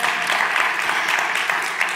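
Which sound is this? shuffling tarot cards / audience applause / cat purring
audience applause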